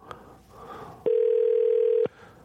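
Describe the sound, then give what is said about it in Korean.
A telephone ringback tone on an outgoing call to a radio listener: one steady, mid-pitched electronic tone lasting about a second, loud and clear, with quiet murmuring before and after. “여기 전화 한번 걸어볼게요.”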